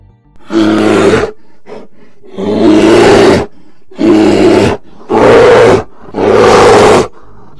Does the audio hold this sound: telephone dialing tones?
no